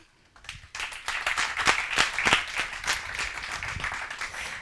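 Audience applause swells up after a brief quiet start, a dense, steady patter of many hands clapping at moderate loudness, with a few sharper individual claps standing out, continuing without talk.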